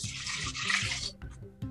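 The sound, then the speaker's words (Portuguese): Two measured cups of water pour steadily into a microwave cooking bowl holding rice, stock and dehydrated onion, about a second of splashing rush that tapers into a few trickles and drips, with a brief louder splash at the very end. No one speaks. “Vou colocar então, também já medi duas chávenas de água”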